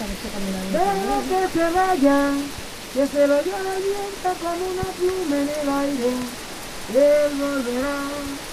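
Steady rain patters on tin roofs, car roofs and banana leaves in the jungle in a continuous hiss while a voice sings a melodic line over it, the rain staying in the background throughout.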